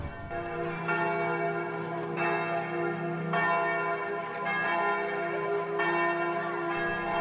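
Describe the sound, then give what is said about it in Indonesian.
Church bells in Europe peal continuously with rich, overlapping tones, new strikes landing roughly every second and a half over a sustained ringing hum, loud and resonant, with no voices; the bells are rung for three days on the Pope's order after news of Sultan Muhammad Al-Fatih's death. “Gereja-gereja di Eropa dan para pengikutnya gembira, lalu membunyikan lonceng selama tiga hari atas perintah Sang Paus.”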